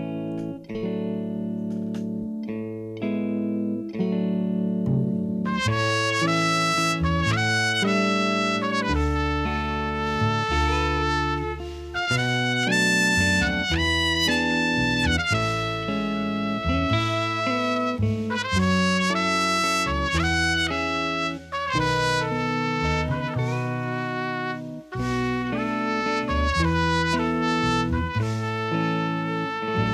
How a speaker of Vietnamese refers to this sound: xin mời quý vị thính giả cùng đến với một giai điệu âm nhạc mang tên là ca khúc